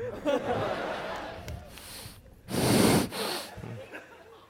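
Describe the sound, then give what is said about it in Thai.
Heavy, wheezing breaths rasp into the microphone, a few ragged pants building to one long, loud gasping inhale in the middle before trailing off into quieter huffs. “เป็นหอบเหรอ ไปหาหมอไหม”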